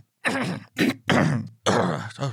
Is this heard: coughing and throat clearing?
yes